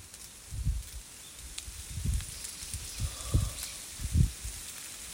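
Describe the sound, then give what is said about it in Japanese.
Dry konara oak leaves, many already fallen, rustle faintly in wind blowing from the direction of the morning sun under a blue sky, swelling in about four soft, irregular gusts with low breathy rumbles and quiet papery crackle between them. “朝日の方向から風が吹いてますね。おならがこうカサカサ鳴ってるの聞こえるんじゃないかな”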